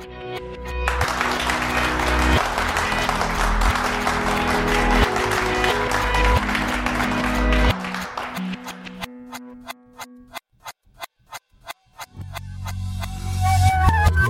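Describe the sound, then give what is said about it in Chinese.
A burst of dense, sustained applause fills the first several seconds, mixed with steady tones, then gives way to a run of sharp rhythmic clicks and a short musical passage. “既然都已经过了这个掌声啊”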